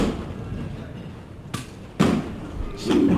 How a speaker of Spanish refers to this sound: Algún que otro tímido aplauso, el llamador que se escucha